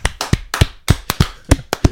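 A short burst of hand clapping, about ten sharp claps in a quick, slightly uneven rhythm, fairly loud, with no voices.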